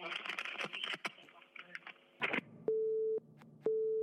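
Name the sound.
telephone busy tone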